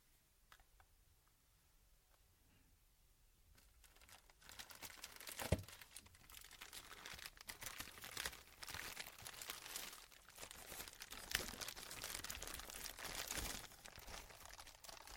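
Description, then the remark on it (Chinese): Large-bubble wrap, the shockproof packing from a headphone box, crinkles and crackles as it is squeezed for ASMR, starting faint and sparse, then building into dense, continuous rustling with occasional sharper crunches and snaps. No one speaks. “这个呢是耳机盒子外面的防震的气泡纸。但是我还从来没有捏过这么大的气泡。”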